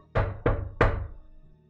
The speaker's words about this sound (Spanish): escuchan golpes en la puerta. Hmm. Hmm. Extraño, yo pensaba que ya habían traído todas las cosas.